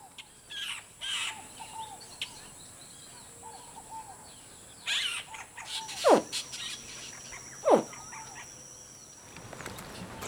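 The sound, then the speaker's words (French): Juvenile crocodilians, captured and kept captive in a house, give a series of short, high distress calls that sweep downward as they are shaken. A few fainter calls come first, then two louder, sharper ones, over a steady insect-like background hum. “Alors, euh, très belle série de cris, là, donc c'est des individus qui ont été capturés, qu'on a maintenus captifs dans la maison, et donc qui euh, sont secoués euh, dans la chambre”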